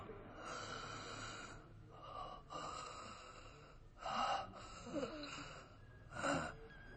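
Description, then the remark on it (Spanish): An exhausted creature, pinned down in the dark after a struggle, pants heavily and raggedly, with several loud, breathy gasps and snorting exhalations spaced unevenly over a steady low rumble. No one speaks. “Oía jadear en la oscuridad a la criatura que tenía debajo.”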